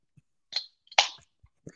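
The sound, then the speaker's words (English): A drink can is cracked open: a small metallic click, then a louder pop with a brief fizzing hiss, followed by a faint soft tap. Nobody speaks. “So you won't hear mine crack, but Kylie, do us the honors.”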